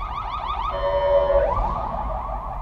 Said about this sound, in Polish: E, w tej chwili się dostosuję również do tego, że przejeżdża obok mnie karetka,